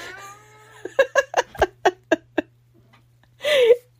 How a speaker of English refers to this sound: this is what the cat does to me all day long he comes and talks to me and i talk back this is my life.